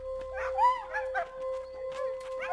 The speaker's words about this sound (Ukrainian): Поки встановлювали особу, почули голосне скавуління собак.